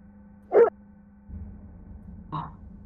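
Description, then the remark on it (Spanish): A dog barks twice, a sharp loud bark followed a couple of seconds later by a softer one, over a low steady hum and faint background rumble. “Eso fue un perro.”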